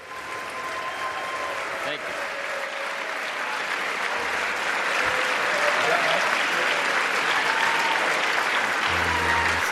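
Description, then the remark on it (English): A large crowd applauds a speech without pause for almost ten seconds, a dense, steady wash of clapping that stays loud throughout, with a few faint voices mixed in underneath. “lot of clapping.”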